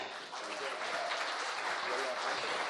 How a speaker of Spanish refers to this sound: Eh, un aplauso para los Vega.